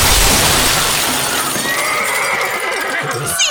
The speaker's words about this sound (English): ¡Cielos! ¿Qué demonios es eso? Tarnation! Didn't know the sheriff was coming in the front door, a riding his horse and dragging half the jail with him. You dang horse!